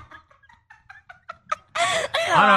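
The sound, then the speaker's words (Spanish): A person imitates a turkey gobble for a video: a quick run of short, accelerating clucking bursts, then a loud, wavering, throaty warble that fills the last second, with no other sounds. “bueno, yo ahí, el video que yo hice haciendo el pavo lo, lo guardaron 197 personas y se lo enviaron por DM 100.”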